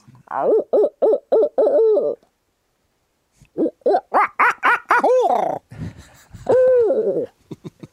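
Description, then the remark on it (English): A man imitates a barred owl's hooting with his mouth, not a call device, giving rhythmic bursts of hoots in two series separated by a pause, ending in a drawn-out, wavering call. “I want to hear your barred owl hoot.”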